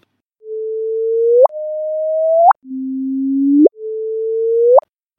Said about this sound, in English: That sound you just heard is a sound coming from LIGO. The gravitational waves that were discovered over the last six months, there's been three gravitational waves detected, and two of those have been verified.